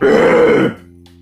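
A single loud, gravelly throat clearing, a rough guttural rasp lasting well under a second before cutting off into quiet.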